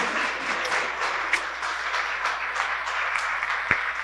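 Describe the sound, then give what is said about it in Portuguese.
Sustained applause from an audience as flowers are presented to the group's spiritual leader, a dense wash of many hands clapping steadily at even loudness, with a few sharper individual claps standing out. “e a gente quer aproveitar em nome, em meu nome, sou esposo dela e de toda a nossa corrente mediúnica, te entregar aqui as flores bonitas, uma salva de palmas para ela.”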